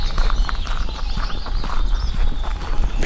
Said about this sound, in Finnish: Sylvijärven uimaranta. No nyt joutsenet lähtee ilmaa. En näe niitä tietenkään vielä, mutta läpsytys kuuluu. Siinä juostaan järven pintaa pitkin. Lintu on iso, ei pääse lentoon kovin helposti. Tarvii kiitoradan veden pinnan.